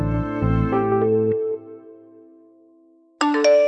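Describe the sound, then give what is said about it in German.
An SMS text message alert tone plays: a quick run of bright electronic chime notes rings out and fades, then a second chime starts abruptly near the end. Clear, with no voices. “Ich höre gleich deinen SMS-Ton.”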